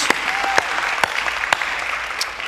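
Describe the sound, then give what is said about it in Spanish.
A church audience breaks into steady applause for those baptized the previous week, a dense wash of many hands clapping with a few sharper individual claps standing out, sustained and fairly loud with no talking over it. “Este aplauso es para todos ustedes, de verdad.”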